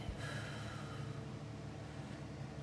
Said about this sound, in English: And then when you breathe it again, make a tight fist and you hold that breath with that tight fist and you release that.